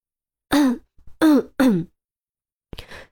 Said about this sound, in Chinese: 他清清嗓子，接着说